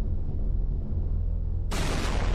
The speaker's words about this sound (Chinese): 一声接一声的爆炸巨响，四处激射的碎石尘烟中